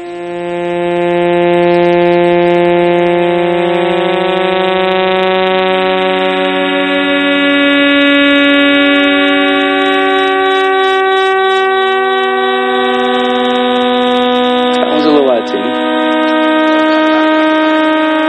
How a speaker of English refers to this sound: 23 millisecond pulsars are there, and we've recorded 16 of them. And right now tonight, while we're sitting in this room, the 16 recorded millisecond pulsars in 47 Tuc are making this sound right now.